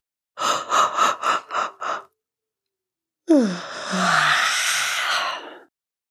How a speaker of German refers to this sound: Dann wieder alles ablegen, Mund auf, einatmen und hemmungslos gähnen und seufzen.